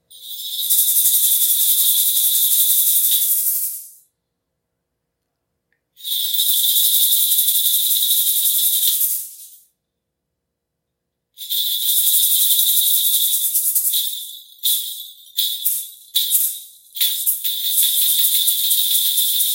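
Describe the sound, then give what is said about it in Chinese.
A sand shaker (maraca) rattles in bright, hissing bursts: three long sustained shakes separated by pauses, then a run of short choppy shakes before it settles into steady rattling again. No talking. “我们如果他拿的是铃铛，我拿的是带沙铃，那我们要玩的是，哎，他有没有发现你声音停了？”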